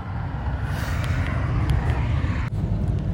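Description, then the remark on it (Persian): A steady, low rumbling roar of cars passing on a highway, heard while cycling beside it, fills the whole stretch, dense and continuous with a brief whoosh near the end and no voices. “برای همین صدای ماشین احتمالا خیلی خواهد بود و هیچ چاره ای هم نیست چون این مدت همش دارم کنار اتوبان چرخ سواری میکنم و هیچ جایی که خلوتی و ساکتی پیدا کنم عملا وجود نداره برام و بر همین این رو ببخشید دیگه یه مقدار تحمل کنید صدای ماشینایی که رد میشه رو”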